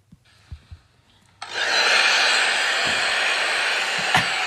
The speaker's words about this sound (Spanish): Mira, tengo ya he buscado lo del sonido de cuatro horas de secador. De secador.